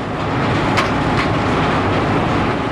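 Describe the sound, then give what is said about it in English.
Coal-crushing machinery at the Black Mesa Pipeline works, where giant metal rods swing back and forth like hammers to crush coal into fine powder, roars in a loud, steady, dense rumble with a grinding clatter, broken by a couple of brief sharp metallic hits partway through. No voices are heard. “Giant metal rods swung back and forth like huge hammers crush it into a fine powder.”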